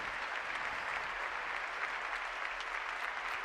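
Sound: applause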